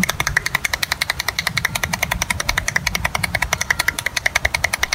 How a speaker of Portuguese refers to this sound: que fez incríveis 403 palmas em um minuto com apenas uma das mãos. Parece impossível, mas ouça ele batendo as palmas aí.